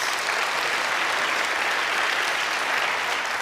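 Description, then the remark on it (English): A church audience applauds its ushers steadily, a dense, even wash of many hands clapping at constant loudness throughout, with no voices standing out. “And let's give our ushers a big round of applause.”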